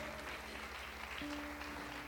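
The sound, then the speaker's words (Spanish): Steady, dense applause from an audience, given for the people following online on digital platforms, fills the whole stretch, loud and even, with a sustained low musical tone humming underneath that shifts pitch midway. “Y mira también, dale fuerte ese aplauso a esas personas que nos siguen por las plataformas digitales”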